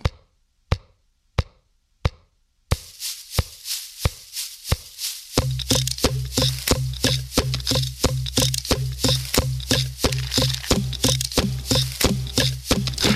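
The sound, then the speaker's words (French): Hollow knocks on plastic Halloween props (buckets, plastic pumpkins, small skeletons, witch brooms, balloons) start sparse and evenly spaced, then build into a quick, busy rhythmic tune over a steady low droning tone, fairly loud, with no voices. “des seaux, des citrouilles en plastique, des petits squelettes, des balais de sorcières, des ballons de baudruche, et avec tout ça, il te joue”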